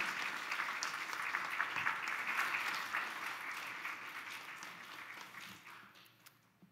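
A church audience applauds steadily to welcome a pastor coming up to the front, a dense wash of many hands clapping at once, holding strong for several seconds before gradually thinning and fading out. No one speaks over it.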